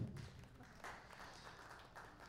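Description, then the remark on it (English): A soft, polite golf clap from a group: light, scattered hand claps blending into a quiet, steady patter for a couple of seconds, with no talking. “Can somebody give me a golf clap?”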